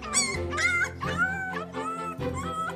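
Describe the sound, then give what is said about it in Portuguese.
Several dogs, including Feial and Caracol, whimper and yip in an abandoned house in the Serra da Estrela, high whining cries rising and falling in quick overlapping bursts for a few seconds, with no one talking. “Ou melhor, estavam com os cães, feial e caracol e com o lobo bebê que tinham encontrado perdido na neve.”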